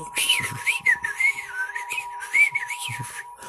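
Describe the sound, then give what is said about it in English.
Someone whistles a quick, warbling birdlike tune, the pitch sliding up and down in short trills, with a few faint breathy bursts underneath. “Just enjoying life happy like a bird that's chirping. That bird is so happy singing.”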